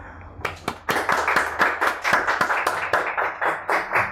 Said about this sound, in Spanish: Así es, esta es nuestra primera emisión y nos sentimos orgullosos de dar inicio acompañados de un amplio equipo de múltiples talentos, así que un aplauso, por favor.